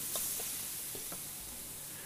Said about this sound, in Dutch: De kokin neemt even een eh, klein hapje uit wat zij hier wokt. Met heel veel knoflook.